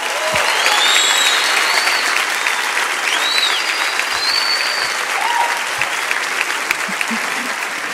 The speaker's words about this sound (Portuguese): Vamos aplaudi-los enquanto eles descem, irmãos, por favor. Aplauda forte. Aplauda forte, igreja. Uhul!